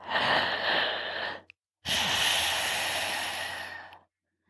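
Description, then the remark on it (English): Two long, raspy breaths, an inhale then an exhale, drawn through a constricted throat with a hissing, ocean-like rush, in the Ujjayi breathing exercise. Steady, separated by a brief pause, with no talking. “When you're able to control the throat on both the inhale and the exhale, making those noises.”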